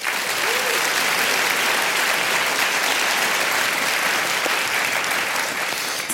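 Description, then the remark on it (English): Sustained applause from an audience welcoming the panelists at the start of a session, a dense, steady wash of many hands clapping at an even loudness for several seconds, with no talking over it. “in Chinese Communist Party meetings, um, you have to clap yourself as well.”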